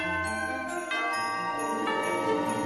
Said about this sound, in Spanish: Y cada Navidad escucharás sonar esta campana mágica.